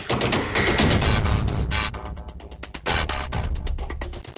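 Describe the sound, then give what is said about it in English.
Music from a malfunctioning CD player glitches and skips, breaking into loud, choppy stutters and rapid repeated bursts with brief dropouts, close and continuous with no one talking. “stupid, lousy CD player.”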